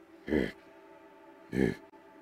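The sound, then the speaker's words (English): A voice imitates a large creature's heavy breathing: two deep, rasping breaths, roughly a second apart, fairly loud over a quiet background. “the breathing”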